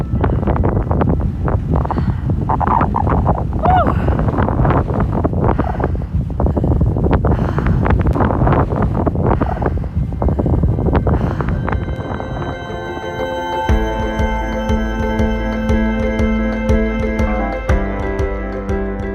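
Strong, gusty wind roars loudly across the open sand dune of Råbjerg Mile, buffeting the microphone with rough thumps; after about thirteen seconds, steady sustained musical tones rise over the continuing wind.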